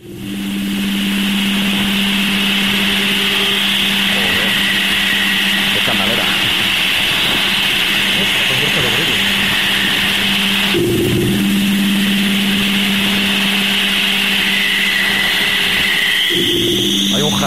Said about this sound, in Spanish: hablando de las ondas magnetosféricas grabadas por la sonda Voyager 2, que también últimamente se ha hablado mucho de ella. Vamos a ver. Que ya salió del sistema solar. Correcto. Antes de salir del sistema solar, mm. dejó esto grabado.